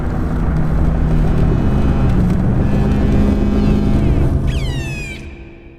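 A loud, steady drone of motorboat engines on the water with churning low rumble fills the scene, then a rising whine sweeps upward near the end before the sound cuts off abruptly; no one speaks.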